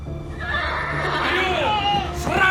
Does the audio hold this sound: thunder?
no